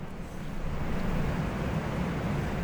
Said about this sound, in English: Albert just asked over on Twitch. He goes, "Is that rain on the roof?" And yeah, at the beginning of the show, it just really coming down. I mean, li- listen to this. This is insane.